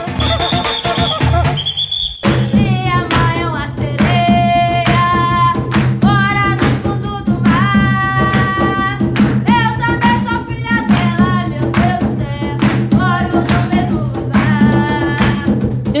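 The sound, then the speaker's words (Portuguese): Authentic traditional jongo music from the quilombo São José in Valença, in the south of Rio de Janeiro state, Brazil, plays steadily and loudly, with a thick, pounding low drum pulse beneath voices singing a wavering melody. A high sustained tone opens the first couple of seconds. “Ao fundo, você ouve um autêntico jongo do quilombo São José, que fica em Valença, no sul do estado do Rio de Janeiro.”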